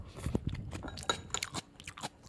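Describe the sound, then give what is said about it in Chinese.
Crisp, crunchy bites and chewing of a homemade summer cold salad dish: a quick series of sharp, crackly crunches in an uneven rhythm, moderately loud, with no talking. “我再吃一口，哇！一定要让你们听到这个声音”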